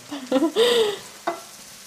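Champignon mushrooms frying in a pan, with a hissing sizzle broken by a few short scraping, squeaky bursts of stirring, the last one briefer and quieter. No one speaks.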